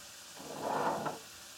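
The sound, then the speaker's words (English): A soft hiss of frying swells briefly and then fades, chicken browning and sizzling in a hot pan, with no voices. “The chicken's looking really good. It's getting nice and brown.”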